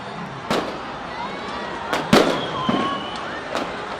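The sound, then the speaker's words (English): Several sharp explosive bangs go off at irregular intervals as tear gas canisters are fired into a crowd of protesters in the middle of a road in Hong Kong. Some are loud, with thin whistling tones and a constant noisy outdoor background between the blasts. “And then, all of a sudden, explosions.”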